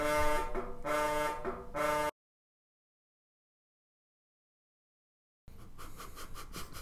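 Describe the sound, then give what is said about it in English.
A phone buzzes loudly with an incoming call in a rapid pulsing pattern for about two seconds, then everything drops to silence before a rougher, rattling noise starts up. “The phone call was that was my phone, I think.”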